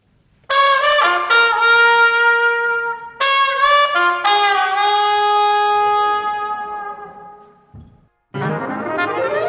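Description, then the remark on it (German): A live 2018 recording in which a loud trumpet and a piano play a short jazzy passage of bright sustained notes and ringing chords that swell and decay, with a brief pause before the music resumes. No one speaks. “Schlenker quasi in den Jazz mit George Gershwin und … an der Trompete”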